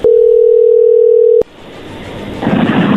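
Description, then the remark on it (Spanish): A steady, loud single-pitched telephone tone hums for about a second and a half as a call is placed, then cuts off abruptly, leaving a low hiss and rustling line noise that swells toward the end. “Márcale”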